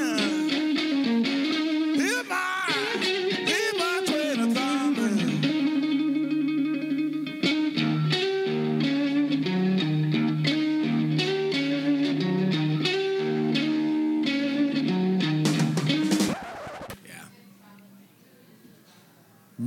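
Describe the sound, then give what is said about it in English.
A distorted electric blues guitar plays a melodic riff with bending notes and steady rhythm over about sixteen seconds, then cuts off abruptly into a brief quieter tail. “You know who's the greatest guitar player of all time? Not just blues guitar player, and I'll tell you, this guy is a blues guitar player.”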